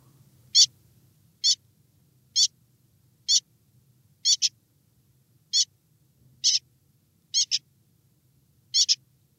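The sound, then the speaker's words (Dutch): A young common whitethroat gives short, high, scratchy calls about once a second, some doubled, clear over a faint low hum. “Dus ik weet dat dit een jonge grasmus is.”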